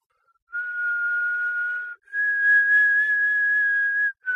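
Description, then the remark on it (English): A person whistles a short tune of long, sustained notes, a lower held tone followed by a higher one, clear, with no talking. “And then I was like, My kids can't whistle, whistle that well”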